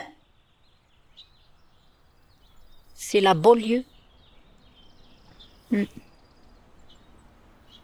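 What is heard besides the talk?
birds chirping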